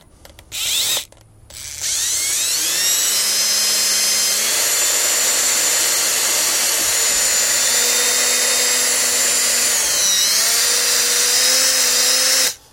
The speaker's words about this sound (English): Hope that's not too loud in the um, in the microphone. two holes are drilled.